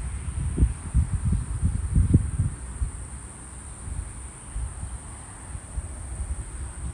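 A steady, shrill chorus of autumn insects trills without pause throughout, outdoors, over a low rumble of passing car traffic and light wind; no one speaks.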